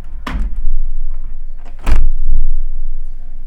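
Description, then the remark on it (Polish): A balcony door is pushed shut fairly gently, a second, quieter closing in a test of very low-frequency pickup: a soft bump, then a deeper, heavier thud with a brief rattle after it, all over a low, steady rumble with no talking. “Może jeszcze raz troszeczkę ciszej go zamknę.”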